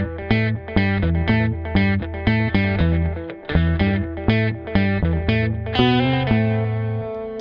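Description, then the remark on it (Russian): A short musical jingle built on two chords, punchy distorted guitar-like strums repeating in a steady, driving rhythm, loud and bright throughout with no voices. “Два аккорда и поговорим о том, на что живет «Медуза», кроме ваших денег, и почитаем ваши же письма.”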